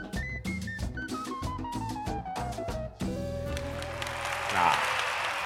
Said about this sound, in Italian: Grandi applausi.